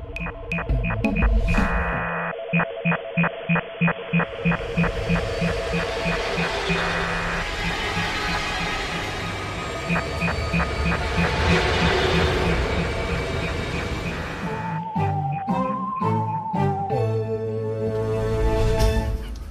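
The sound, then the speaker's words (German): A short instrumental jingle plays alone, with a steady chugging pulse under sustained tones. Toward the end the melody shifts through a few rising and falling notes before finishing. “Also jetzt der Jingle rum.”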